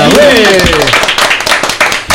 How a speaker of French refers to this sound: Allez, on applaudit. Voilà.